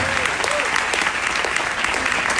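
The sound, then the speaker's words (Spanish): Steady, dense applause from an audience, a continuous wash of clapping with a few faint whoops or cheers rising above it, lasting the whole stretch without a break. “¡Tengan un aplauso su nuevo plata y próxima esmeralda.”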